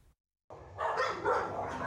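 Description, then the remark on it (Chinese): After a brief silence, a chorus of stray dogs in iron cages at an animal shelter in Hsinchu breaks out barking, excited at seeing people: loud, overlapping yaps that blur into a continuous racket with no talking. “关伫铁笼仔内底，这个狗仔若看到人来，拢会真激动，希望有人甲因带转去。”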